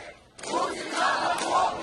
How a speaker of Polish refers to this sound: Choć nie takie, jakich można byłoby oczekiwać. Słychać było jednak okrzyki Rosja bez Putina.